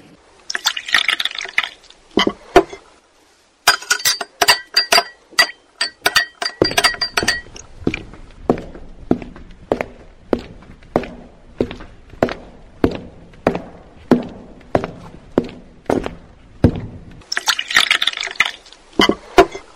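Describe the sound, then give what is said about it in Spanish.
Glasses clink and rattle in bright bursts, then a steady run of sharp, evenly spaced clinks and drips as small drinks are poured and served, ending with another cluster of jangling glass. No one speaks. “Mm, bueno, bueno, se sirven un traguito.”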